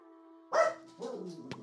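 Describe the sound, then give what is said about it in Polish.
A dog yaps sharply once, then lets out a string of shorter, whiny barks, somewhat muffled, over a steady electrical hum with no one talking. “Słyszysz jakiegoś ujadającego psa w, sali obok.”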